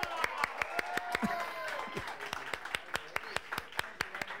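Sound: audience applause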